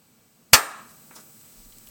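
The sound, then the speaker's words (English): A single sharp hand clap, made to mark and sync the audio of a recording, rings out on its own, loud and sudden, with a brief fading tail afterward and quiet before and after. “Let's clap at five seconds after.”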